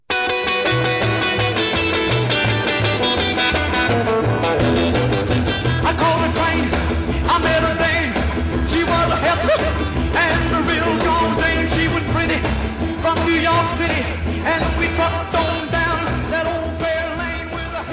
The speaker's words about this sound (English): He discovered that if he dislodged one of the tubes in his amp, something that he did to try to replicate the sound from a damaged amplifier, he ended up with this sound